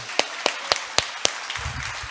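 A short run of applause, heard as five crisp, evenly spaced claps at a steady beat, followed by a brief low rumble and faint room noise.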